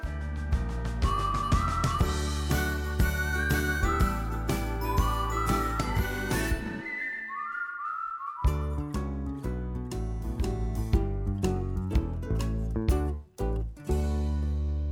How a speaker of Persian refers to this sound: حالا به ادامه موسیقی گوش کنید